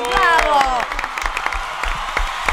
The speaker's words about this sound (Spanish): Un aplauso para todos.